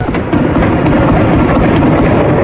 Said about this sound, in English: Cell phone video capturing the sound of gunfire during Highland Park's July 4th parade. This morning, police say the gunman was perched atop a roof, firing at parade goers who just gathered to celebrate the holiday.